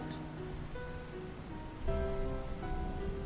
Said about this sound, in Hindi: it's raining बारिश हो रही है रेन गिव्स अस बारिश से हमें पानी मिलता है